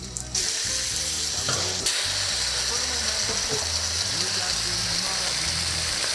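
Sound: food sizzling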